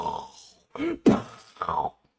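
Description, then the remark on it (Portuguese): A wet sputter of spit bursts out mid-laugh, surrounded by a few short, throaty laughing gasps in quick succession, with no words spoken. “você, ficou, você cuspiu muito feio, velho.”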